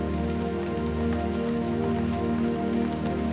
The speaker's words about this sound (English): Listen the sound of the rain. It is a well known sound, and the feelings that accompany the image and sound of rain are well known feelings. The descending quality of rain as it showers down on your head connects you to a sense of downward movement.